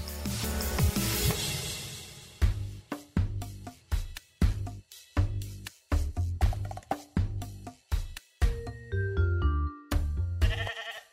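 Sheep bleat over and over in quick, loud bursts, with a dense clamor at the start and faint bell-like tinkles mixed in. No one speaks.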